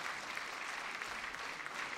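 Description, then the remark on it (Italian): Steady, dense applause from a large audience for the individual singers at an opera, as characters such as Don Ottavio and Zerlina are called; sustained clapping that fills the space evenly without pause, with no voices standing out above it. “ecco si sono placati gli applausi ah, ecco, no, no, no, ripartiamo adesso c'è ecco. l'applauso per i singoli”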